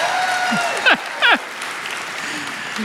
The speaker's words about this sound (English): Good morning, ladies and gentlemen. Thank you for that golf clap. Thank you. Thank you for that golf clap, you know.